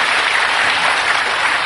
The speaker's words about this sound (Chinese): 这个时候你就要鼓掌了。哎，这时候你就要鼓掌。